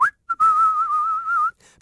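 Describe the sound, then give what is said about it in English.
A single person whistles a steady, slightly wavering note, starting with a brief upward chirp and a short pip before holding the tone for over a second, clear with no talking. “makes everyone who suggested his tactics wouldn't work in the most competitive league in the world, mate, stare at their shoes and whistle a bit.”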